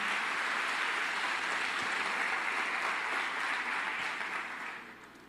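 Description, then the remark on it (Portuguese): An audience claps together to applaud the Lord for his word, a dense, steady wash of applause that holds for about four seconds before thinning out and fading toward the end. No one speaks over it. “Você consegue aplaudir ao Senhor pela sua palavra, queridos?”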